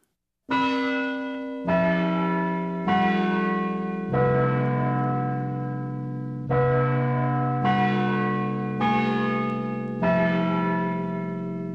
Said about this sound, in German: das Glockenspiel des Big Ben in London. Alle Welt verbindet diese Klänge mit der Hauptstadt Großbritanniens. Sie sind das tönende Logo Londons.